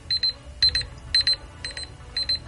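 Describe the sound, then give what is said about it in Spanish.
An alarm clock beeps in quick bursts of three or four rapid tones, repeating steadily and fairly loud over a low background rumble, with no one talking. “Y ahí está ya la alarma de la responsabilidad, em, lo cual significa que ya es tiempo de irnos despidiendo.”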